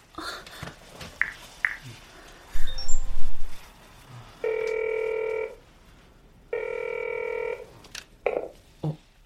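mobile phone ringing

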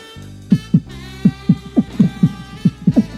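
heartbeat sound effect

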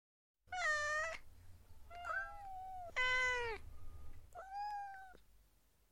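cat meowing

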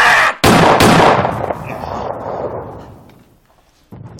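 gunshot

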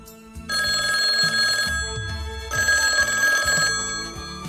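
telephone ringing

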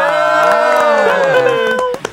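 audience applause and cheering

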